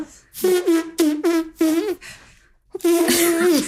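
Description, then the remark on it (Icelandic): A voice imitates a trumpet with buzzing lips, playing four short punchy blasts in a quick rhythm, then a pause and one long sustained brassy note, loud. “já ég sko var eins og gekk góð í að spila trompet með munninu en ég er það ekki lengur”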